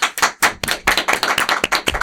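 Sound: applause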